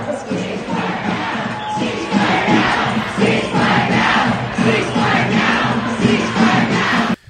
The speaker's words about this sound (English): No, it's just an anti-war protest